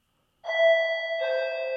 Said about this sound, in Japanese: 家のチャイムが鳴りました。